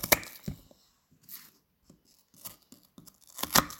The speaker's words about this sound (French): Est-ce que c'est agréable d'entendre couper Je ne sais pas. Je ne sais pas. Je ne sais même pas si vous entendez. Peut-être que je me rapproche du micro.